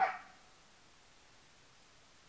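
A dog gives one short, sharp bark right at the start, followed by near silence with only faint room noise.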